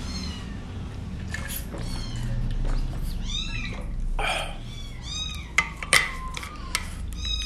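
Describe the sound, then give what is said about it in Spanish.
Several kittens, newly arrived, meow and cry in high, wavering squeaks, their calls overlapping almost nonstop over a low background rumble, with a few sharper clicks near the end. “Y bueno, miren, ya llegaron más gatitos chillones.”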